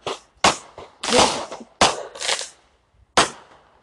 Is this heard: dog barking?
no